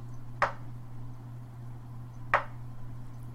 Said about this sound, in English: Alright. That's two knocks. If, if it yeah, did, so if it, it came, twice. If it came through on the mic, I don't know.